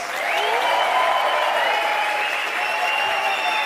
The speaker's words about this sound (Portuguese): Então eu queria que vocês aplaudissem os comediantes dessa noite